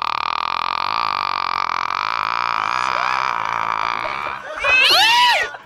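A steady, droning tone holds for several seconds, then a single loud, wavering cat meow rises and falls near the end, clear with no talking.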